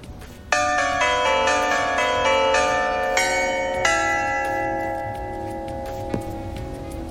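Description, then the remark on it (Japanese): A bright, ringing 'pinpon' correct-answer chime sound effect with several quick bell-like tones struck in succession, then sustained tones that slowly fade, loud with no talking. “効果音は、えーと、と例えばあのガーンこんな感じはいガーンあの落ち込んだみたいな時とかあのー、ありますよねピンポン”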